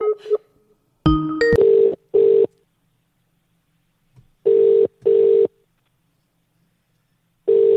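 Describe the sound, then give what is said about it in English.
Electronic telephone ringing tones from a caller ringing twice come in short paired bursts with silent gaps between them, after a quick flurry of dialing beeps at the start. The tones are clear and steady, with no voices. “He just rang us twice.”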